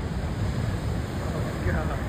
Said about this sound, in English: In New Hampshire, wild waves powered by the menacing weather pounded the Hampton Beach shoreline. Nature's fury is on full display in the churning waters.